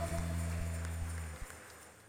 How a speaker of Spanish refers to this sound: ofrenda de palmas, désela más fuerte, désela con todo su corazón.